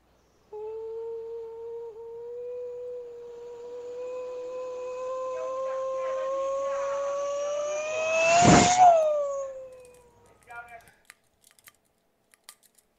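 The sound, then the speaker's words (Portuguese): A voice imitates a race car coming from far away and passing by very fast: a steady buzzing engine tone climbs in pitch as it approaches, peaks in a loud burst, then drops sharply and fades as it speeds away. “Eu vou fazer um carro de corrida, hum. indo bem de longe, passando bem rapidão assim.”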